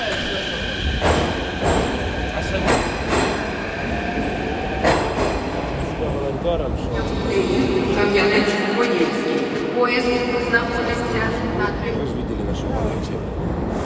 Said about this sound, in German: Die Stimmen, die Sie hören, sind Flüchtlinge, die sich am Bahnhof eingerichtet haben. Sie warten nicht auf Züge, aber wenn sich etwas ändert, da wo sie herkommen, könnten sie schnell zurück.